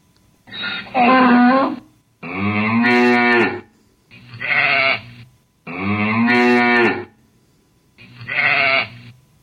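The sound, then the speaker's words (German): A string of five loud farm animal calls from an animal-sounds file, opening with a donkey's bray, each a drawn-out harmonic cry separated by brief pauses, with no voices present. “Als erstes kommt ja der Esel, der soll eine Textmarke bekommen.”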